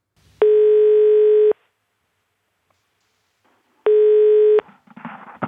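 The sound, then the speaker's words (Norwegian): A steady electronic telephone tone sounds twice while placing a call, about a second each, separated by a couple of seconds of silence, followed by faint rustling handset noise. Clear, with no voices. “ring, ring opp Arne, få han til å betale for innloggingene sine”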